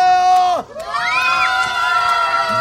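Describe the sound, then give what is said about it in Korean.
A crowd of children who have come to celebrate cheer and shout, many high-pitched voices overlapping in a loud, continuous roar that dips briefly before swelling back up and holding steady to the end. “그리고 이제 많은 우리 어린이들이 지금 저의 완엠씨를 축하해 주러 많이 와 있습니다.”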